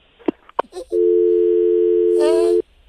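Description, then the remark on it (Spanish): A few sharp clicks and handling noises, then a steady, unbroken telephone dial tone hums loudly for nearly two seconds after the caller hangs up, with a voice briefly speaking over it before it cuts off. “ya colgó ese vato, como que tuvo miedo.”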